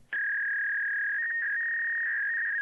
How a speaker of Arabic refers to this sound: ولما تتصل الفاكس ذيك الفتره تو نازل الناس ما تعرف الفاكس فانت تتصل على فاكس مطار الرياض القديم يحول لك تليفون ثم يحول لك فاكس في, في النغمه الرابعه او الثالثه يحول على فاكس فالناس تسمع كانه رفع السماعه وبعدين ظهر الصفير هذا